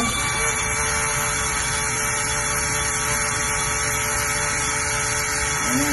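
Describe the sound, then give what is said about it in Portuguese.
A drone's motors spin up with a steady, loud electric whir and a buzzing high-pitched whine, holding one even pitch and level for the whole stretch with no talking, as the drone tries to lift off but stays on the ground because of a motor problem. “Drone que não decola: Dicas do Zmaro em 4:60 para solucionar o problema do motor”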